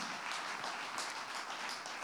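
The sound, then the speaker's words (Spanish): A crowd applauding loudly and steadily, dense overlapping claps forming a continuous wash of sound with no speech over it, sustained for the full two seconds. “Dele, dele ese aplauso bien fuerte.”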